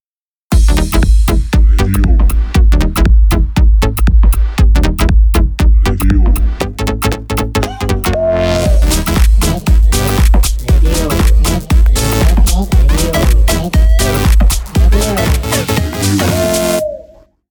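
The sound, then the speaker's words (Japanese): An upbeat pop track plays loudly and continuously on a radio programme, with a punchy beat, dense synths and a sustained vocal line, running from start to finish without any talking over it. “そんな熱々の星にふさわしいこの曲を聴いていただきましょう。”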